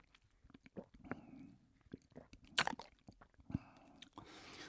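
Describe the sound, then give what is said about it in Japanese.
Someone drinking Shirobara milk from Tottori in a studio: quiet sips, swallows and wet mouth clicks scattered over a few seconds, with a sharper smack near the middle and no talking. “今回スタジオに白バラ牛乳あるんですよあのね僕どさんこなんで牛乳うるさいですよ本当にそんなちょっとやそっとじゃ美味しい言いませんよどうですかねちょっといただいてみましょうね”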